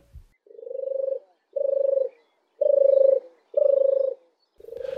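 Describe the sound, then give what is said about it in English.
A turtle dove's soft, rolling purr repeats in five steady phrases, each about a second long with brief pauses between, clear with no other sounds or voices. “The turtle dove's song is a beautiful, relaxing, purring call and it's a lovely bird to have around the house singing from your Christmas tree at Christmas, if only.”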